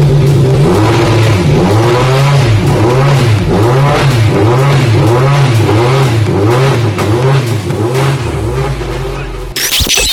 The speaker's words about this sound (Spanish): Mientras tanto nos quedamos pues con el sonido de ese primer Rally 1 híbrido de la historia.